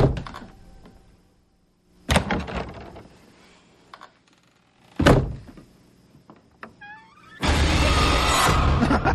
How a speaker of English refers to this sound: The closet door won't shut. It's because Michael Myers is He's in. got his foot in the door.